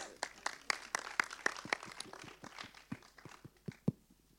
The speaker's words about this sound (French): tant que j'y suis, j'ai oublié tout à l'heure de dire merci au cinéma Les 400 coups et, et, euh, à ses projectionnistes, euh, merci tout plein. Et on peut les applaudir aussi.